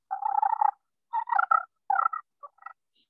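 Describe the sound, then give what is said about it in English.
A petrified wood friction turkey call scraped with a sliding striker, giving a long raspy squeal, then a run of shorter squeaky yelps and chirps, fairly loud, with no talking. “Hear that little shriek it's making.”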